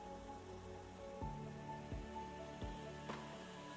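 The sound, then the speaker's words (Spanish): A steady wash of flowing river water rushes without pause, broken by a few sharp splashes or taps spaced about a second apart. No voices. “Solo se escuchaba el agradable ruido del río.”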